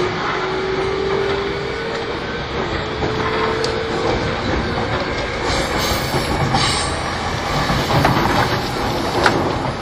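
A Yamanote line E231 series train on the outer loop, Tokyo to Tokyo, runs steadily with a continuous loud rumble, rhythmic clattering of wheels over rail joints, and a faint rising whine from the motors, with no voices.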